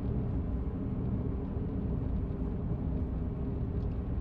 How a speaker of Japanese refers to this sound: まあ遊びに行くって人もいるかもしんないし大方の人がねあの仕事出られてるんだと思うんですけど今私も。ねたくさんいる車列の中に、うん、混じってですね、えー、仕事場に移動してるわけですけれども